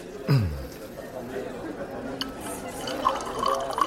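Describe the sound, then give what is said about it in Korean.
Liquor gurgles as it is poured into a glass, a short splashy fill with a few small drips and light clinks, over a soft murmur of background chatter. “한국에서는 어른이 술을 따라주면 두 손으로 받는 거야.”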